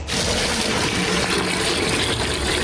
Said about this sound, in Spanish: Apartando hasta para mi baño el agua de los trastes que estoy lavando, colando en la coladera para echarle directamente a la taza del baño porque no, no, ahora sí estamos en crisis de agua